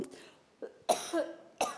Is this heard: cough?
yes